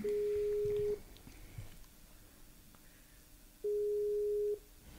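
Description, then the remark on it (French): A Skype call ringing tone as a guest is called over Skype: two steady, mid-pitched tones, each lasting about a second, separated by a few seconds of low background noise. “Oui, ah, c'est parti, je l'appelle.”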